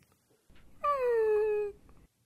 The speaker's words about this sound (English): gentle, concerned, not like not like prolonged, extended, but like a little whimper